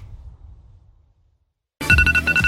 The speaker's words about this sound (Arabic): فأنت اللي هو بتصحى كل يوم الصبح الساعة 6 صوت المنبه بيرن